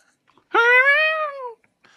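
A cat named Scratch gives one drawn-out meow, fairly loud, rising slightly then trailing off over about a second, with near silence before and after and no talking over it.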